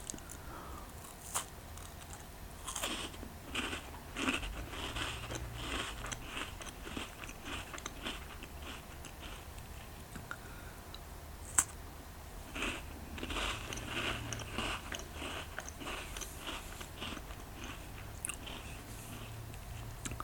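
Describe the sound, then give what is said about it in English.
Crunchy biting followed by steady, irregular chewing of a cookie, with repeated crackly bursts over about twenty seconds and no talking. “I'm gonna have another cookie.”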